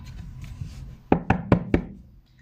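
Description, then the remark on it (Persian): Four sharp, loud knocks in quick, even succession, crisp taps against a hard surface after a quiet, murky start, then fading to near silence; a loud tapping heard in Hagrid's hut in the Harry Potter story, where an owl holding a newspaper in its beak is at the window. “ناگهان صدای تقتق بلندی به گوش رسید و قلب هله در سینه فرو ریخت گمان میکرد خاله پتونیا اومده و به در انبار میکوبد”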